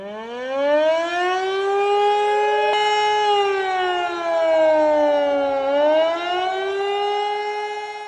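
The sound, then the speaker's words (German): A loud civil defense warning siren wails steadily, its rich harmonic tone slowly rising and falling in pitch over several seconds, with no voices. It is a test of the disaster warning systems at 11 a.m. on Germany's nationwide warning day, in Gladbeck, Bottrop and Gelsenkirchen. “Sirenen heulten, Handys schrillten. Es war wieder bundesweiter Warntag.”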